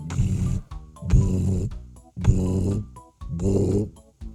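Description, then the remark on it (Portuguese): A voice imitates a rumbling, upset stomach with four loud growling bursts, each lasting about half a second to a second, separated by brief pauses in a steady rhythm. “Tenho o estômago às voltas. Olhem para isto, até ronca.”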